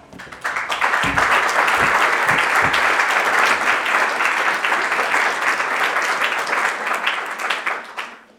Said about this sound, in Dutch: Dames en heren, een warm applaus voor Griet.